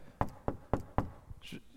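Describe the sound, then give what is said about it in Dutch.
Four firm, evenly spaced knocks by a woman on a closed door in quick succession, loud, followed by a brief quieter stretch with faint softer sounds. “Nee, eerst krijg je even dat ze klopt op de deur, hè, want ze hadden de deur gesloten.”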